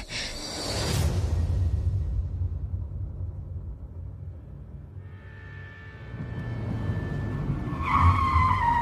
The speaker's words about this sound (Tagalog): Sumakay na kami kaagad sa kotse niya. At halos paliparin niya na yon. Makarating lang kami agad sa simbahan.